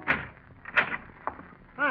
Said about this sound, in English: But no, there he is, right on the dot of eight. And you breathe a sigh of relief as you open the door